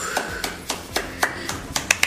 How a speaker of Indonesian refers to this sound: Kasih tepuk gue juga, gue juga.